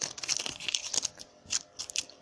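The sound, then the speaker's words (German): A piece of Tesafilm adhesive tape crackles and rips as it is torn off in a quick series of sharp bursts, a sticky tearing sound that stutters unevenly for a couple of seconds with no talking. “Ich klebe mir jetzt Tesa auf den Mund.”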